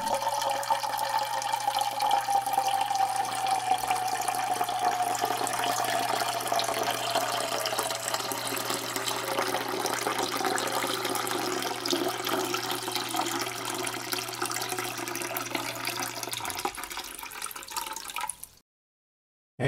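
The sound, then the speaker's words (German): Steady rushing water with gurgling and churning, loud, running continuously for about eighteen seconds before cutting off abruptly. No voices. “Und mir ist das vielfache Rauschen und Gluckern und Gurgeln und so weiter der Wasser eigentlich so im Kopf geblieben.”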